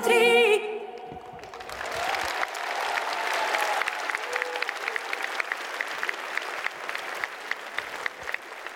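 The audience at the Golden Gramophone show in the Kremlin, Moscow, bursts into sustained applause, dense and steady, with a few whoops and cheers rising over the clapping as a final sung note fades out at the start.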